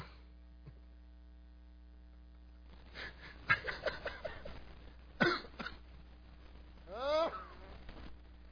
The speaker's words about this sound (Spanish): resulta que hasta mi tos le da risa.